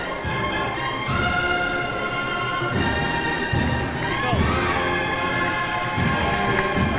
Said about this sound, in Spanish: Escuchamos los aplausos de la gente con esa campana tubular, de nuevo con esta banda.